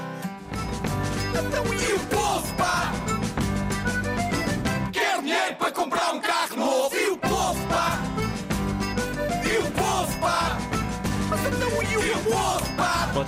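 A protest song sung loudly by a crowd of voices chanting together over a full band, continuous and energetic, with the low end briefly dropping out midway before the whole group swells back in.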